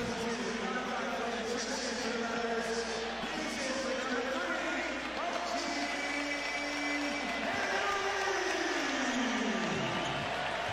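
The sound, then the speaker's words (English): A basketball arena crowd cheers and roars steadily for about ten seconds for OG as he checks out of the game with 23 points, a dense, loud wash of voices, with a tone sliding downward in pitch near the end. “The crowd gets to show OG some love here, right?”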